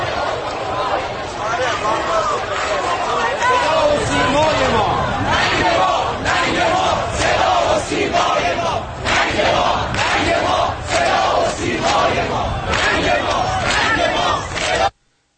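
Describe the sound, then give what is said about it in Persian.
A large crowd chants slogans in unison at Iran's state broadcaster (Seda va Sima), loud and continuous, with rhythmic shouted bursts and dense voices layered over one another for about fifteen seconds before it cuts off abruptly. “آره یه قسمت که مردم شعار میدن برای صدا و سیما”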